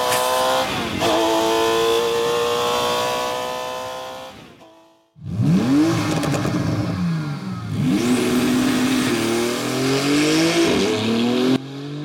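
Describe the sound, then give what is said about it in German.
Two loud sports car engines rev in turn: first a naturally aspirated 911 GT3 gives a steady high-pitched drone with rising harmonics, then after a brief gap a turbocharged 911 GT2 RS sweeps up and down through several throttle blips. “Also ihr merkt, liebe Zuhörerinnen und Zuhörer, wir sind wirklich im Feinschmeckerbereich unterwegs, weil es geht um Turbomotor und Saugmotor. Und jetzt spielen wir diese Sounds mal ein.”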